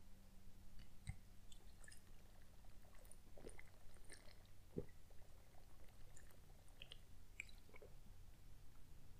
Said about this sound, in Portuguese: Deixa eu até beber água aqui.